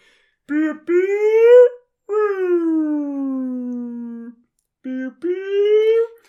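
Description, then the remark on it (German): A voice imitates a wailing car alarm with three rising and falling howled tones, separated by short gaps, loud. “Das, das hört sich aber jetzt eher, ehrlich gesagt eher an wie so eine äh, Alarmanlage vom Auto.”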